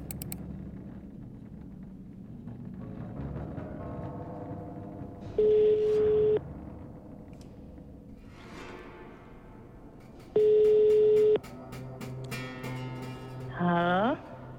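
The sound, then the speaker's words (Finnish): A telephone ringback tone sounds twice as a journalist places a call: steady one-second beeps spaced several seconds apart, clear and prominent over a murmur of voices and background sound. “mä etsin laivalla kadonneen nuoren miehen läheisiä ja sen takia soittelen nyt läpi”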